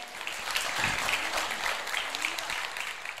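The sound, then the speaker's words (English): An audience claps steadily for about three seconds in praise of the Lord, a dense wash of many hands applauding together, fairly loud and sustained with no voices over it. “Give the Lord a great hand clap of praise for that.”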